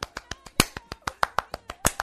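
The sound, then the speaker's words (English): Two styles of applause overlap: a quick, steady patter of soft, light golf claps mixed with a few louder, more spaced-out slow claps, with no talking. “You do a slow clap, I'll do golf clap.”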